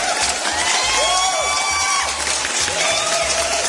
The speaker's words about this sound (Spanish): Así es que, por favor, gracias y aplausos para nuestros amables patrocinadores.